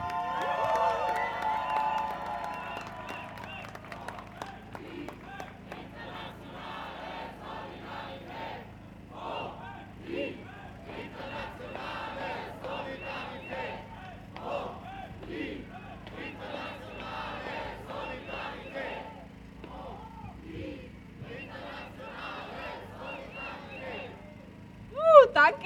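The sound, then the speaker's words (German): A large outdoor crowd at a protest cheers and shouts continuously, a dense wash of voices with whoops and yells rising over a steady low rumble, swelling louder near the end. “Mach mal bitte laut werden für die Bayern.”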